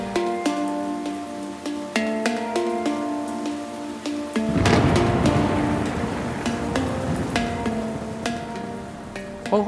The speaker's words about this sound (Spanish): acuapónicos suena a motores y a turbinas de agua que interconectan el sistema. Suena a agua que fluye y burbujas.